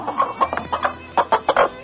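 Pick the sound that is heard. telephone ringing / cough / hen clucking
hen clucking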